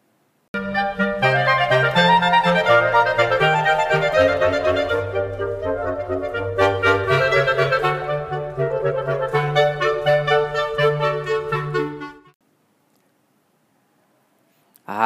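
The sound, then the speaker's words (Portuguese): Woodwind instruments play together in a flowing, steady passage, sustained melodic notes over a low moving bass line, lasting about twelve seconds before stopping abruptly into near silence. “E vamos ouvir o timbre das madeiras.”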